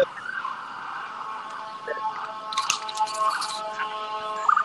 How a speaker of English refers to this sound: Ah, sirens come in all forms